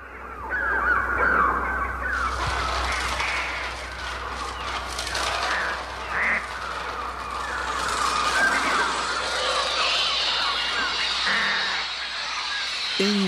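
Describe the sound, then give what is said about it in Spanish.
A dense, continuous wash of shrill electronic bird cries and squawks, made with a Mixtur-Trautonium combined with multiple Ecoflex units playing bird sounds with programmed delays, overlapping and fluttering over a low steady hum, loud and filling the whole clip with no talking. “La combinación del Ecoflex y el Tautronio de Oscar Sala da como resultado esto.”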